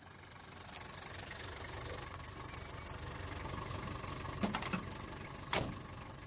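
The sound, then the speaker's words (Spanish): A taxi engine runs steadily with a low, continuous rumble amid traffic noise, with a couple of short, sharp bursts of hiss near the end. No one speaks. “Después de bajarse del taxi, Douglas Quell cruzó lentamente tres canales de peatones densamente poblados y cruzó la moderna, atractiva e invitadora entrada.”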